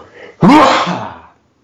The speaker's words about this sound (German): Gesundheit. Ach, das tat aber gut. Das tat selbst mir gut. Ach, das, das schön. zu hören. Wenn der Druck raus ist. Oh Mensch, ey, das schüttelt einen durch, ne? Ist wie eine Massage.